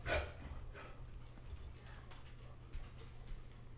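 A dog named Parmesan barks once sharply near the start, then gives a softer second bark, over a steady low hum and faint background noise.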